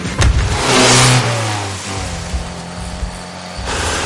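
A car engine revs hard, the tone climbing and then settling into a steady drone as the car drives out of a village along a road, with no voices over it.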